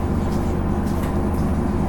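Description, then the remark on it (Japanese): Steady low rumble of a JR KiHa 31 series diesel railcar's engine heard from inside the carriage on a local service from Wakamatsu to Orio, a continuous droning hum with no voices or breaks. “JRキハ31系 若松から折尾まで”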